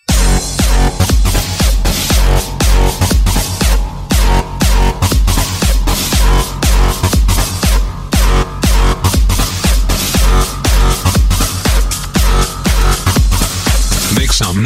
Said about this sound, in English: Time for another fat ass drop.